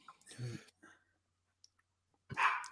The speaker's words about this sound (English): Sorry, my dogs are barking. That's why I'm taking a while to answer.